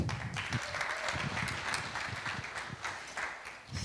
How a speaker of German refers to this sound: Ich finde es wunderbar, wenn wir sie mit einem Applaus begrüßen.